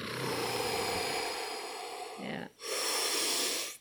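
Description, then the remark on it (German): A voice imitates breathing through a scuba tank regulator underwater: a long, hissing inhale, a brief pause, then a harsh, airy exhale, fairly loud with no other sounds. “Einfach nur so seinen Atem zu hören, weil durch diese Flasche hört man halt krass, wie die Luft eindringt.”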